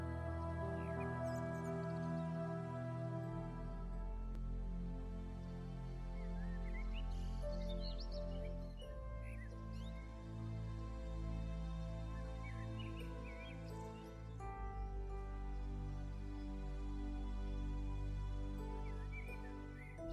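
Scattered bird chirps and tweets float above sustained orchestral music, the calls light and intermittent rather than prominent, with no one speaking.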